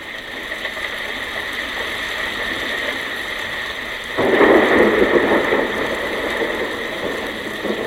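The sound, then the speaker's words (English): A steady, hissing wash like falling rain fills the whole stretch, swelling louder and fuller about halfway through as a deeper rumbling surge joins in. No voices are heard. “It sounds so much like rain, doesn't it?”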